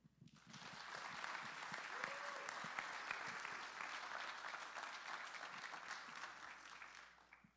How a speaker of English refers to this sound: All right, can you, the seniors stand up and can we applaud you one more time obnoxiously? Can we stand? Will you stand and applaud with me?